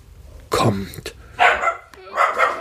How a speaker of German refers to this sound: Ja, sorry dafür. Das ist, wenn man einen Hund im Haus hat und der dann mal irgendwas Verrücktes hört, was die Nachbarn machen.